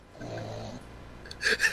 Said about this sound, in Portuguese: Peraí, sério mesmo? Tá roncando.